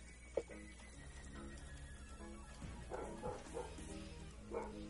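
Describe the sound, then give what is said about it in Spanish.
Dogs bark, a handful of short, faint yaps scattered irregularly over a steady low background hum, with no one speaking. “Tienen unos perros por ahí.”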